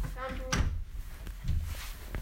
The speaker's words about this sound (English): No, like just shut the door. Open the door.